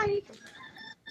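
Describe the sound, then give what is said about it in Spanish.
A rooster crows in one loud, drawn-out call with a strained, raspy pitch, lasting about a second before cutting off abruptly. “Ahora el gallo se oye más duro que ella.”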